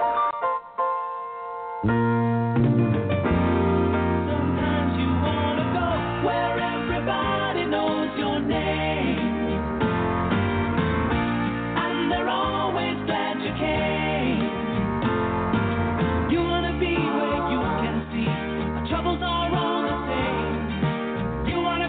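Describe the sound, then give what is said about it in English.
Full, steady instrumental closing music for the show Mike and the Mic, with dense melodic and harmonic layers and a solid low end, playing loudly and continuously for about twenty seconds with no voices. “I want to finish off the show with a little music and say to all my listeners, thank you guys, and thank you all for coming in.”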